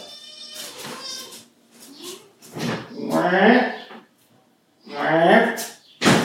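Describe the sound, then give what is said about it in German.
Foxy, a small cat, meows loudly, giving several drawn-out, wavering cries separated by short pauses, with a few softer sounds in between. “Oh, jetzt schreit ja auch noch der Foxy.”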